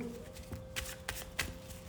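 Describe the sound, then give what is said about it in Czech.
Cards being handled as a tarot card, the Moon, is drawn for the future position of a reading: a few soft, crisp flicks and slaps spaced irregularly over two seconds, quiet against a faint steady hum, with no talking. “Na pozici budoucnosti padá karta stínu.”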